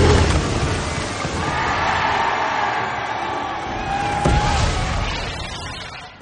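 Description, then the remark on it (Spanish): In a Spider-Man scene, a large crowd of people gathered below roars and cheers with joy as the Sandman collapses; a broad wash of excited voices with some whistling tones, sustained at steady loudness before easing off at the end. “Las personas congregadas abajo saltan de alegría cuando ya solo queda el brazo de este, que termina por desplomarse también.”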